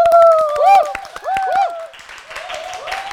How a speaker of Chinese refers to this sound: 大家先给自己一个掌声吧！